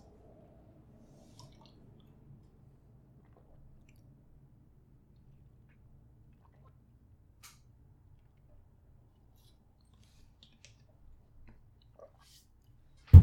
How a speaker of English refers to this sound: There's a plane overhead that my mic is picking up, so when that happens, I'm going to take a drink of water so it's easier to edit out.